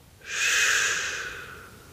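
A single slow exhale pushed through a steady, hissing 'shh', swelling quickly and then tapering off gradually over about a second and a half, alone with no talking.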